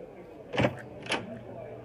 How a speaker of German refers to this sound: Der Ritter öffnet die Tür zur Taverne.